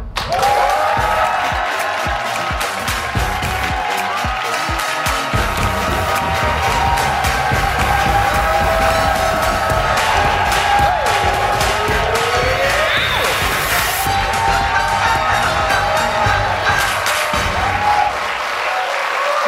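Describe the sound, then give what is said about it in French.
A studio audience of the TV show Le Monde à l'envers claps and cheers loudly and steadily for guest Serge Denoncourt for about twenty seconds, a dense wash of applause with scattered whoops and shouts rising above it, no talking on top. “Tu es chaudement applaudi.”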